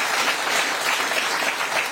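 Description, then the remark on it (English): A round of applause from a group for a GP director taking the hot seat on a programme, steady dense clapping that stays loud and even throughout with no voices over it. “so nice to get a round of applause for a change.”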